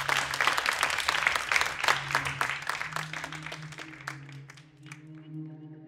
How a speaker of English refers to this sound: Please join me a round of applause, Ove Hoegh-Guldberg.